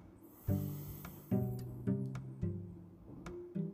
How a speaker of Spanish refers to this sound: Toma una respiración profunda. Toma otra, otra más, otra respiración profunda.